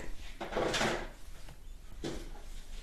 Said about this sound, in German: Und äh, man hört ihn auch die ganze Zeit im Hintergrund kramen.